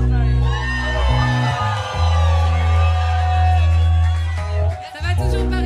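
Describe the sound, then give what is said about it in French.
A large concert crowd in Paris roars, whooping and shouting continuously over a heavy, booming bassline, the cheering dense and loud throughout with a brief dip near the end. “S'il vous plaît, Panam, faites un maximum de bruit”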